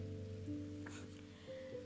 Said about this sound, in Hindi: देखो ये कागज़ भी भीग गया है इसकी स्याही धुल जाए उससे पहले आ जाओ बारिश रुक जाए उससे पहले आ जाओ